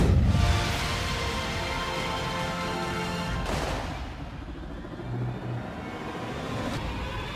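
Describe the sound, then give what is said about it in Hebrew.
A string of booming fireworks explosions at a fireworks display in Berlin marking 30 years since the fall of the Wall, a strong burst at the start and another sharp crack midway, over a continuous crowd-like rumble with crackling tails; fairly loud and sustained throughout. “ברלין ציינה במופע זיקוקים מרהיב 30 שנה לנפילת החומה,”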